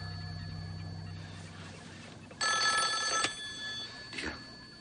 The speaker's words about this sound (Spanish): Suena el teléfono que ha dejado sobre la cama. Se vuelve y se queda observándolo de cerca.